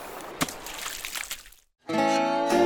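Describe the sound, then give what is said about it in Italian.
Water of the Volturno river flows with a steady rushing texture and a few splashy sloshes, then cuts to a brief silence before a sustained, tonal, music-like sound takes over. “E infatti mi sto godendo a piedi questo spettacolo incredibile lungo le acque del fiume Volturno, un percorso ricco di colori, atmosfere, suggestioni, soprattutto in questa stagione.”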